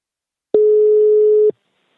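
One steady, mid-pitched telephone ringing tone sounds for about a second, clear, as an outgoing call is placed to the company Invacare. Silence follows, with no voices.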